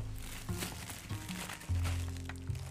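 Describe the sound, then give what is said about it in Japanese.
Soft paper rustling and crinkling in short irregular bursts as this week's issue of the magazine Weekly Pro Wrestling (Shūkan Puroresu) is handled and opened to look at its cover, over a steady low hum with no one speaking. “週刊プロレスを開けるのもですね1週間ねあの我慢してたのでねあのワクワクしておりますそれでは早速ね、え今週号の表紙を見てみましょう”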